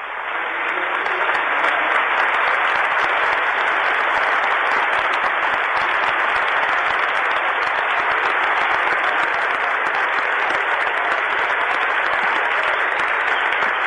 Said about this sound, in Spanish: Aplausos, con favor, homenaje a Emanuel Ortega, que ha muerto, ha dejado su vida en lo que más le gustaba hacer, que era jugar al fútbol.